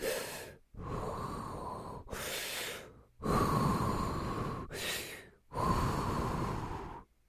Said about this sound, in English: Uh, yeah, I'm sitting in the corner and I'm I'm just like practicing breathing, like